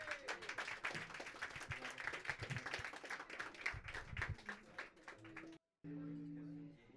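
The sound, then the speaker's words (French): A crowd applauds a duo's first public performance steadily for about five seconds, a dense wash of many hands clapping together, then it cuts off abruptly and a low steady hum follows. “Ça s'applaudit encore, s'il vous plaît.”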